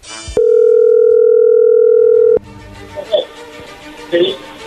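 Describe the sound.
A steady, loud telephone dial tone holds for about two seconds while a call is placed, then cuts off abruptly, followed by quieter rustling and faint voice-like sounds.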